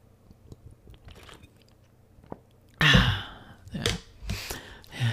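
Someone sips water: after a quiet stretch with faint clicks, a few short wet slurping sips come in quick succession, mixed with breathy swallows and exhales. No talking.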